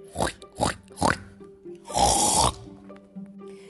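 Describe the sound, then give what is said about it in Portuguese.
A voice imitates a dog snoring: three short, rough snorting breaths in quick succession, followed by one longer, louder raspy snore, with a quiet background. “Talvez isso faça ele parar de roncar e assim podemos voltar a dormir.”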